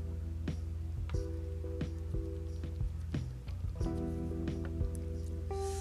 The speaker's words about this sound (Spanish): Voy a tomar de mi agua, lo siento.